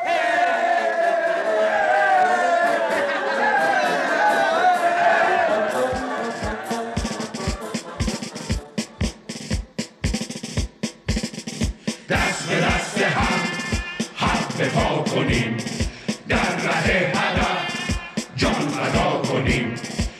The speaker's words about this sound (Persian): مردم تو شهر به خاطر سرنگونی فرمانده جشن گرفتن و سرود میخونن